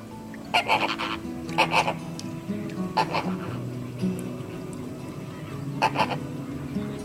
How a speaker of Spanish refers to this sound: Flamingo. Flamingo.